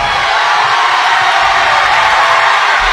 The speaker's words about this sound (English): If you can't tell, this gym is pretty loud tonight, folks.